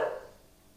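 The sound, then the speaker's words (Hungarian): A single short dog bark at the start, moderately loud, fading quickly into a quiet background with no voices. “Bocsánat, hogyha itt a kutyajogatás behaladszik.”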